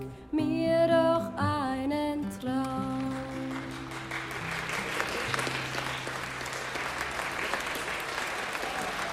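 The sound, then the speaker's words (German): A sung melody over sustained music from a song-and-dance stage performance fades out after a few seconds, giving way to loud, enthusiastic applause from an audience in a school hall, a dense, steady clapping that continues to the end. “Das Publikum in der Schulaula erlebte einen Traum aus Gesang und Tanz auf der Bühne und applaudierte schließlich begeistert.”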